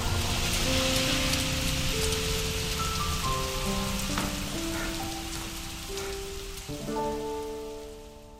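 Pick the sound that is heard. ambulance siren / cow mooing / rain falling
rain falling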